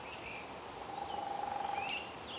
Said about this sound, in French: Quand vous aurez fait le plein de chants d'oiseaux, reprenez la marche.